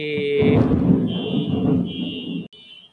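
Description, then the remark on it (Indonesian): Loud car noise: a deep rumble under a steady, piercing high tone that holds for about three seconds before cutting off abruptly. “jadi ini aduh ada itu tadi ada apa namanya di suara mobil jadi terganggu”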